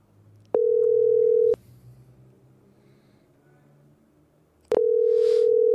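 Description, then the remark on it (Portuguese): A phone call's ringback tone to a woman's phone set to Do Not Disturb: a steady electronic hum sounds for about a second, falls silent for a few seconds, then starts again and holds to the end. The call rings once and drops. No one speaks. “O telefone dela tava no Não Perturbe. Porque chamou uma vez e caiu.”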